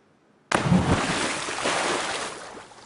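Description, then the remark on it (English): A sudden heavy splash erupts after a brief quiet, a person doing a cannonball into a swimming pool, recorded with an underwater mic and an overhead mic, followed by a couple of seconds of churning, sloshing water and bubbling turbulence that slowly settles. “they place an underwater mic and an overhead mic outside the swimming pool.”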